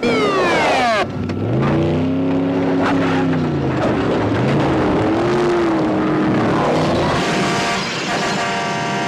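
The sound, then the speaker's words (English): A car engine revs loudly, its pitch climbing and dropping in repeated surges, with a brief downward whine at the start and a sustained, strained roar toward the end. “A car possessed.”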